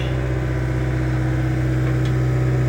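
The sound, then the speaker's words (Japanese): A heavy diesel engine of demolition machinery drones steadily, a deep, continuous low rumble with a faint whine riding on top, no voices, holding level throughout, as an operator works beside scaffolding at a house demolition site on a cold day. “これ重機のオペレーターさんもむずいな本当に丁寧な作業をしないとあの足場の柱に当たっちゃうしもちろんその5人も作業員さんがいるので作業員さんももちろんヘルメットとかしてますけど危ないですよね命がけだねこの仕事。”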